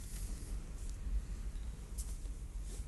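Steady wind buffets the microphone, a continuous low rumbling roar with a soft hiss above it, gusting slightly stronger now and then. No voices are heard.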